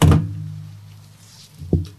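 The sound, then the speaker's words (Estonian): An office window is shut with a solid thunk, its low rumble lingering, followed by a second softer knock of the frame settling. No one speaks. “kas äh, paned äkki akna kinni”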